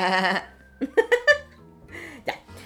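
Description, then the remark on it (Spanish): A person bleats like a sheep in one loud, wavering cry. Short bursts of laughter follow, then quieter voiced sounds. “Ya, la oveja.”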